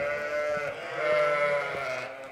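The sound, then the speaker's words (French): Several Manech tête rousse ewes bleat in overlapping, wavering cries inside a sheepfold, a steady chorus of sheep calls with no talking. “Alors elles sont contentes de nous voir, vous entendez Elles savent parce que les enfants en général ils ont le droit de leur donner un peu de maïs.”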